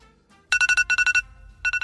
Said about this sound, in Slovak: tak máme ešte jeden budíček